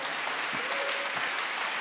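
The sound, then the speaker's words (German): An audience applauding the Lord during a sermon, a dense, even wash of many hands clapping at a constant moderate loudness throughout, with no voices standing out. “Komm, wir geben dem Herrn mal einen Applaus.”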